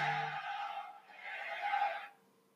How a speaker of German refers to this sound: Ja, das war mein Handy.